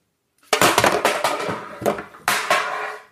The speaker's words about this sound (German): Dose 1 und Dose 2. Stell dir vor, das sind der Wendler und Trump. Dann kann man die Dosen so nehmen. Kann man voreinander hauen.